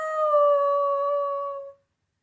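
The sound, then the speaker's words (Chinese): A wolf's howl at the moon at night, with wolves gathered around a small wooden cabin on an island: one long, steady mid-pitched tone that slides slightly lower and holds for under two seconds, clear and fairly loud with no talking, then silence. “这么多狼围着我嗷嗷叫，吓得我睡不着，请你们离开这座岛好不好？”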